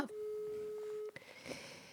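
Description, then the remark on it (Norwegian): A single steady telephone ringback tone hums for about a second, then cuts off abruptly, followed by a couple of faint clicks and soft line noise as the call connects, while calling a friend back. “og da tenkte jeg skulle ringe tilbake til han nå.”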